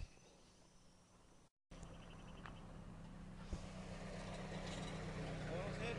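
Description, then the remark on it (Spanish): Another motorcycle's engine hums steadily, growing gradually louder as it approaches and passes by, after a brief moment of silence near the start. “Viene otra motocicleta, voy a hacer pausa.”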